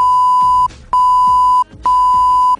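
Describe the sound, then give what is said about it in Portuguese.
Three long, steady censor beeps covering a spoiler, each lasting about two-thirds of a second with short gaps between, loud, almost fully covering faint speech underneath. “a bipa, bipa, bipa essa é última parte aí, bipa, bipa, não pode saber, não pode saber ainda, não pode saber ainda, mas em breve.”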